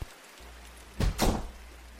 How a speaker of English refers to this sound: What was that? Did the bathroom door just shut? It must have been a draft. You must have left the bathroom window open.